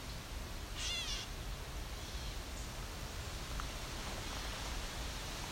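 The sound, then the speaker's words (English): A single nasal, cat-like mewing call from a catbird rises out of steady hiss and outdoor noise, with a fainter bird note shortly after. No one speaks. “So we got ravens and catbirds.”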